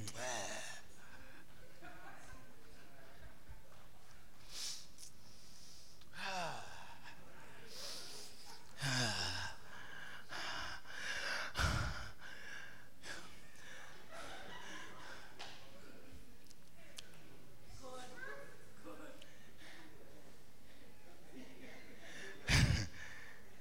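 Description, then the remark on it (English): A voice makes exaggerated, noisy sniffing sounds, as if inhaling fuel fumes at a gas tank, in a series of breathy inhalations, with murmuring in the background and a couple of sharper bursts. “So you go to the gas tank, you're sniffing the fuel.”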